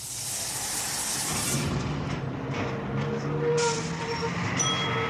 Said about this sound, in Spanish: Ahí viene el bus, ahí viene el bus.